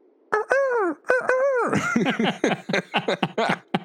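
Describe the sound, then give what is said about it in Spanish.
Someone imitates a bird with their voice: two drawn-out, wavering calls, then a quick run of short, choppy squawking chirps. No one speaks. “Escuchamos un ruido de pájaro hecho por una persona.”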